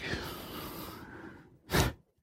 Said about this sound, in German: Ich muss mal einmal gerade husten, sonst wird das hier unangenehm.